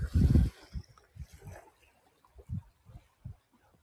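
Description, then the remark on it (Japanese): Feet kick and slap through shallow, fairly lukewarm seawater in Okinawa in a run of irregular splashes, one heavy splash first and then lighter, uneven ones, with no talking. “足でバチャバチャやり始めました。”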